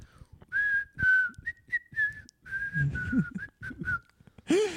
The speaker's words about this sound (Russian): Если свистеть песню, это будет песня на нашем просто музыкально звучать как песня, а для них это будут какие-то другие слова на языке свиста. Это что на языке турецкого свиста означает?